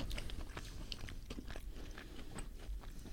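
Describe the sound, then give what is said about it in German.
Wet chewing with repeated bites and soft crunches in an irregular rhythm, someone eating a hot burger of 100% beef with breadcrumbs mixed in, no talking. “Ja, eine gute Temperatur, gut reinbeißen.”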